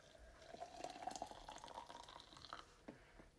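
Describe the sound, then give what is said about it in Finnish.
Water trickles and splashes as it is poured into the narrow tube of a coffee brewer, a steady gurgling stream with a faint rising tone, then a few drips as it tapers off. “Eli nyt me kaadetaan vettä tähän putkeen.”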